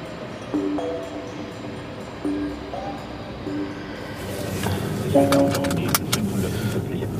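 Short electronic chimes beep repeatedly inside a car amid rustling and a jingle of keys as people get in, then a couple of clunks as a steady engine and road rumble builds up while the car drives over a heavy stone bridge across the Nahe river.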